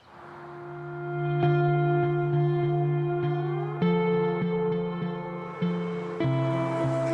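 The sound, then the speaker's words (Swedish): A short instrumental music cue with sustained tonal chords that shift every second or so, washed in heavy echo and reverb, fairly loud and on its own with no voices. “Ska jag spela intro till den avsnittet?”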